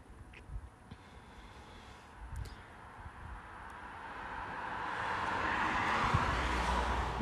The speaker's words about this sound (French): on entend aussi les grosses voitures qui voiturent